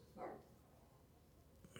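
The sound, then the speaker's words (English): A dog barks once, faint, with a quieter yelp near the end over low background hum. No one speaks. “Fucking dogs. I'm sorry. I'm trying to to ignore them.”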